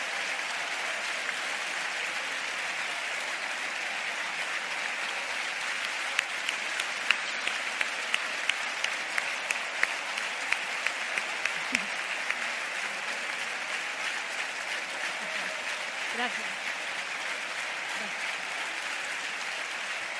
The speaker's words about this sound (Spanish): En principio, ovación, ovación eh, a Isabel de Ayuso en la Convención de, Valencia.